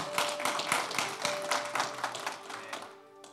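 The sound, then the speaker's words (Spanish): A crowd applauds with dense, overlapping claps that hold steady for a few seconds, then thin out and fade toward the end, with a faint sustained tone underneath. The people present applaud to greet online listeners in Brazil, Peru, Guatemala, Mexico and Romania. “¿Por qué no les damos un aplauso los que estamos acá?”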